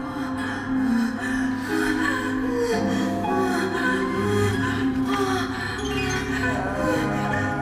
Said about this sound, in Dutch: En eh, heel veel schakering. Dat maakt het ook gewoon makkelijker om te werken eigenlijk. Om verschillen ook in kreunen en hijgen te maken.